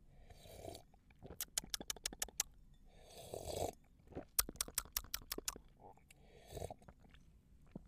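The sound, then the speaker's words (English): Three airy slurping sips of a bourbon barrel aged wine, evenly spaced, each followed by a quick run of wet mouth clicks and swallows, with no talking. “Okay, admittedly, that was three sips, but I needed three sips to get the full picture here because this is this is a fun wine.”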